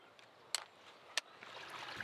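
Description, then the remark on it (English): Moores Creek rushes steadily beneath a low-water concrete bridge, feeding Lincoln Lake, in a continuous, hissing wash of water, fairly soft and even, broken by two brief sharp splashes or knocks. “Moores Creek, rushing beneath this low water concrete bridge, feeds the lake.”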